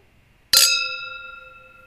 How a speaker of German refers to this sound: Wir stoßen äh, einmal zum, äh, zum Schluss an.